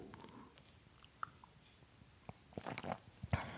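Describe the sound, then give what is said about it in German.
Someone takes a quiet sip of water: soft wet mouth clicks and a faint gulp or two, with a small cluster of slurping sounds near the end and no talking. “Muss ich mal einen kurzen Schluck Wasser drüber trinken?”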